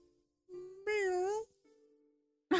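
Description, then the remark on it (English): A kitten from a troop of eight kittens making their way up a staircase gives one drawn-out, wavering meow, fairly loud. Softer tonal mews come before and after, then a brief noisy burst at the very end. “troop of kittens.”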